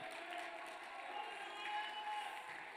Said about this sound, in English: Uh, can somebody lift up your voice? Can somebody clap your hands? Can somebody lift up your hands? Can somebody just shout unto God here tonight?